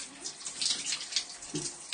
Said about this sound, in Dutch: Nou, het geluid van de douche.